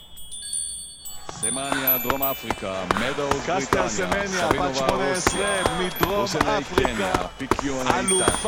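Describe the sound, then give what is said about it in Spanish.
Someone empties and refills a yerba mate gourd with fresh yerba, with a quick series of hollow knocks and thumps as it's tapped out, while people talk steadily in the background. “Dale, cambia la yerba mientras te cuento.”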